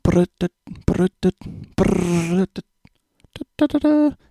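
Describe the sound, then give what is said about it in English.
A person vocally imitates the THX cinema sound: a few short voiced bursts, then a sustained, swelling hum with rising pitch, followed by more choppy vocal fragments, fairly loud. “I won't make you suffer with that. And uh, in the process, I actually was looking at, I found a thing was like, what happened to THX?”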